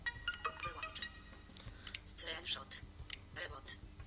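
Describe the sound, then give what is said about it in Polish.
A mobile phone is switched off: a short run of high electronic beeps and tones mixed with quick button clicks and taps, fairly quiet over a low background hum. “telefon wyłączę.”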